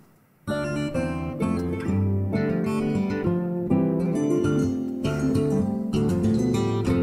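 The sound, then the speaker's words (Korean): The main theme music of the game Hearthstone: an orchestral piece with lively strings starts after a brief quiet moment and plays loud and full throughout, with rich harmonic layers and a bright, upbeat rhythmic feel. “자, 지금 나오는 곡은 하스스톤의 예, 메인 테마곡입니다.”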